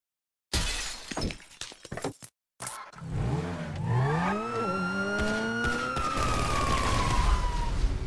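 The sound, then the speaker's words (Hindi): Video game audio from GTA: a sharp crash of breaking glass and car noise, then a siren wailing up and down in steady sweeps, loud, with no talking. “अरे क्या नाम है बाबा उसका जीटीए जीटीए अरे बाबा वही वाली लगाओ चलो जीटीए हम्म, लगा रहे हैं”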